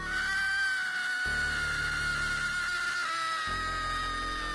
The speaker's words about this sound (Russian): Но второй нечеловеческий вопль едва не разорвал мне сердце.